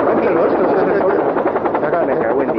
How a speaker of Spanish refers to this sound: ¿Qué, es eso? ¿Un helicóptero que ha pasado o qué, tío? Sí, sí, acaba de pasar un, puto helicóptero, tío.